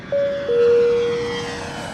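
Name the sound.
airplane taking off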